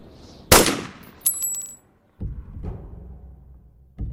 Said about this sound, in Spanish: levantó el cañón del arma y disparó al aire.